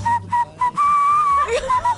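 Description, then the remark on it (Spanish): A person whistles a breathy, flute-like tune imitating an Andean flute: three short clear notes, then a long held note with a slight waver, ending in a quick flourish of shorter notes. “Pero sí, pero, pero la chiflada de, de, flauta, le sale la flauta andina en chiflido.”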